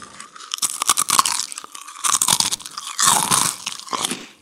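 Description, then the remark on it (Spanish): Loud crunching close to the microphone as someone chews crisp food ASMR-style, in irregular bursts of bites and grinding with brief pauses between, no talking. “Haz una SMR de lo que vas a comer.”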